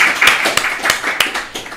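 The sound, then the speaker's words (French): An audience at an evening event applauds steadily, a dense wash of many hands clapping with a few sharper individual claps popping out at irregular moments. It stays fairly loud throughout, with no voices over it. “que je demande d'applaudir également”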